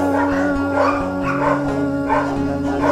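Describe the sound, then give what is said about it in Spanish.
Small dogs, stirred up by a big dog passing by, bark and yap in a loud, continuous chorus, with repeated bursts rising over a steady, high-pitched whining tone that runs throughout. No one speaks. “Nuestros fans, los perros.”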